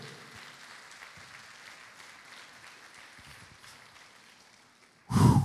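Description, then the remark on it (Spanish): An audience applauds the King with a steady, dense crackle of many clapping hands that holds for several seconds, then swells into a sudden louder burst right at the end. “Dáselo fuerte al rey.”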